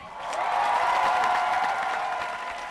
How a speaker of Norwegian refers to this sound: Alle sammens favorittkanader, slå henda og lag masse lyd og ta vel imot